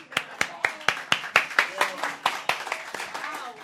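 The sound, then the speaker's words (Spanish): A short burst of audience applause: sharp, fairly steady claps at a quick rhythm for a few seconds, with some voices murmuring underneath. “Un aplauso a,”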